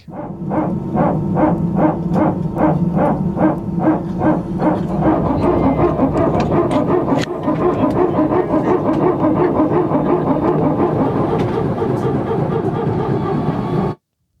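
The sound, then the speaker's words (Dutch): An Airbus A320 hydraulic power transfer unit, a hydraulic pump, barks loudly aboard the aircraft: a quick run of rapid, evenly spaced bursts that merges into a steady, grinding mechanical drone, then cuts off abruptly. “Het is de PTU, de eh, Power Transfer Unit. Dat is een hydraulische pomp.”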